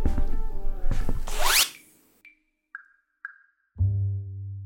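Bed curtains are drawn with a loud, rasping swish of sliding fabric and rings lasting over a second, followed by three short pinging tones and then a low, steady hum.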